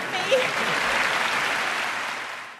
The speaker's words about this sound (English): It's memorable, but the reaction shots of people in the audience, they're like, oh, uh, girl. They're clapping, but they're much. just like, uh.